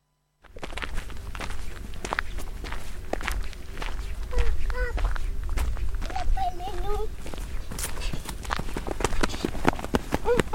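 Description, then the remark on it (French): Steady footsteps crunch along outdoors at a walking pace on a walk through vineyards, with faint birdsong and light ambient noise in the background throughout. “On écoute tout de suite une balade dans les vignes.”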